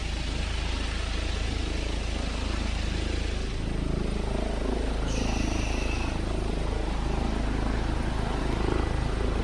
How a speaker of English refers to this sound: I hear the helicopter taking off.